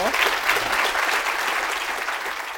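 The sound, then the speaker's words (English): An audience claps steadily for a panel, a dense wash of many hands applauding at once, loud and sustained throughout with no voices standing out. “So please help me in thanking this fantastic panel.”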